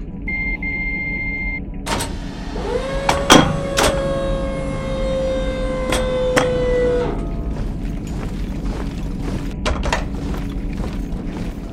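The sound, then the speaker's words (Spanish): A sci-fi spaceship door opening once it is declared safe to leave the ship: a short high beep, then a burst of noise and a steady electronic hum lasting several seconds, broken by sharp mechanical clunks before settling into a low rumble. “Abriendo con puerta.”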